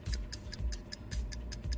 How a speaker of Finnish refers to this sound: Se on kello käynnissä 092 500.